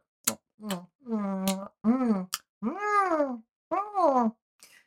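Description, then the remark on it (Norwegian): A voice imitates a cat meowing: a quick series of five or six drawn-out, rising-and-falling meows, close and fairly loud, with a few sharp clicks between them. “Reven begynner å spise. Mjau.”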